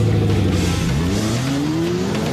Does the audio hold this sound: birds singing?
no